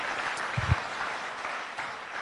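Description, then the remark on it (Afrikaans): An audience claps their hands for the Lord in a dense, steady wash of applause, with a couple of louder low thumps early on and no voices standing out. “Kom ons gee die Here 'n magtige hande klap.”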